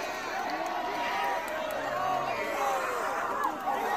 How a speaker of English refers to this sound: Oh! Listen to that crowd. Holy shit, they done.